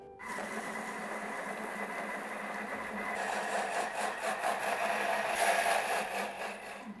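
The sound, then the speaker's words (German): A Thermomix blender whirs steadily as it purees strawberries with sugar and a few drops of lemon, a continuous motor drone that grows louder and rougher halfway through, with a pulsing, churning texture. No one speaks. “Ich mache das in einen Thermomix, aber Sie können einen anderen Mixer nehmen. Einfach pürieren mit Zucker und ein paar Tropfen Zitrone.”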